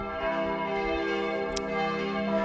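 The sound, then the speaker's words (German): Church bells ring in a steady, sustained wash of overlapping metallic tones, their rich harmonics droning on without pause at moderate loudness, with no voices over them. “Ist gerade die Kirche. ASMR ah, am Start.”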